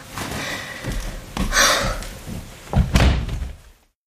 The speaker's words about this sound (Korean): 내가 아무런 대답도 하지 않자 그녀는 문을 쾅 닫고 나갔다.